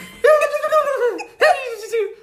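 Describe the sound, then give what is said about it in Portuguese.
A balloon letting air out in two loud, wavering squeals, the second shorter, with a high, strained, turkey-like pitch that sags and trembles as it goes. “Parece um peru. É um balão a largar o lá.”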